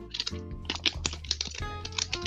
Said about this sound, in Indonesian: ngelinting rokok lo bangsa sekarang udah satu korban kena ketularan ngelinting